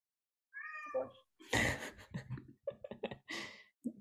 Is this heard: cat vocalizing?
yes